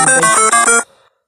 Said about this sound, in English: Okay, well, that was an alert to my phone. Let's turn that off. We don't want that while we're trying to talk.